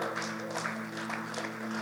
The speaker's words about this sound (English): Would you just clap your hands? As they come, you're clapping. As they come, you're, you're celebrating.